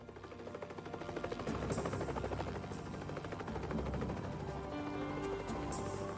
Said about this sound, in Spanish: También buscaron en el bosque y los pantanos más densos de la zona. Los helicópteros sobrevolaron por cuadrículas. Todavía nada.